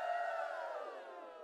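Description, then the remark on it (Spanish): A crowd erupts in loud cheering, joyful shouting and applause at a wedding ceremony as the couple is declared husband and wife, many voices overlapping in a sustained roar that eases slightly toward the end. “Se oyó los aplausos y gritos de felicidad.”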